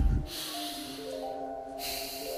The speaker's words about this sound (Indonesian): jika gitu ya, tarik nafas